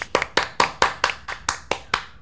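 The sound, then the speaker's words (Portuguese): Steady, evenly paced hand claps, about nine sharp slaps in a row at a brisk regular rhythm, moderately loud with no voices over them. “E palmas também para o rapaz do vídeo, Doppelganger, palmas, que...”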